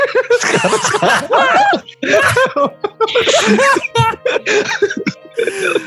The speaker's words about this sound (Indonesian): Aduh, sampai batuk. Aduh. Aduh.